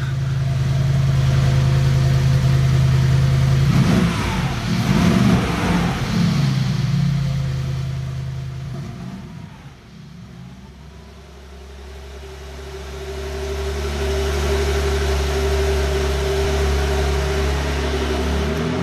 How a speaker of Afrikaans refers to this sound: En net vir die petrolkoppe, waarna gaan ons luister? Dit is 'n uh, Mercedes G63 uh eh, in plain Afrikaanse taal 'n G-Wagon en uh loop fantasties in die woestyn.